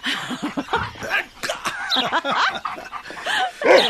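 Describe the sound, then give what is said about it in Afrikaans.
A dog named Bixie barks and whimpers in short, excited bursts during play with its ball, with some light laughter mixed in. “Ja, jammer, my hond.”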